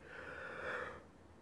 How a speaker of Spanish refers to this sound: Disculpen un poco mi bostezo.